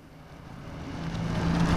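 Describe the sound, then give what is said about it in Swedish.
A car engine hums as a vehicle arrives at the Domargård waste disposal site to drop off waste, the low rumble and tire noise growing steadily louder over a couple of seconds, with no voices. “Jag är nu här på Domargård och här är en del bilar nu på väg att föra avfall och, men annars så är det ganska lugnt skulle jag säga ändå.”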